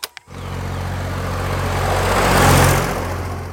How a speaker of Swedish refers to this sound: Rätt fordon för det där ljudet är en traktor. Jajamän.